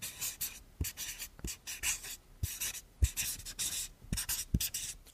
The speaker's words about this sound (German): Ah, schön, oder? Moderationsstift, also auf Post-it. Wunderschön.